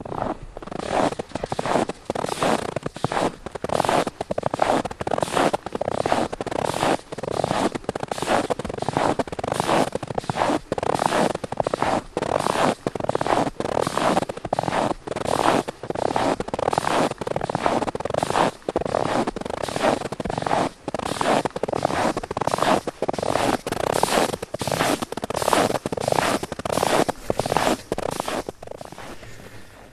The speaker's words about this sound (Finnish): Pitäisikö ottaa vielä ääniten, miltä tuntuu, kun kävelee tällässä pakkasessa jäällä, kun sitä lunta on vaan se viisi senttiä. Kuinka se narisee 25 asteen pakkasessa?